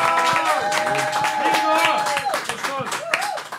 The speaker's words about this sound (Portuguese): Então vamos lá para um minuto de stand-up. Uma salva de aplausos